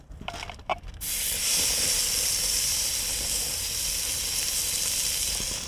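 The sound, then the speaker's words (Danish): A steak sizzles loudly on a pan directly over an open fire as fat from the steak drips onto the flames, starting after a second of faint crackles and then holding a dense, steady hiss with no talking. “Altså, der kommer en masse fedt fra bøffen af, som rammer ilden, og, og det giver bare en fantastisk duft.”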